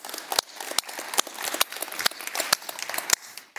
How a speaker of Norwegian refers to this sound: En applaus til Jesus og en applaus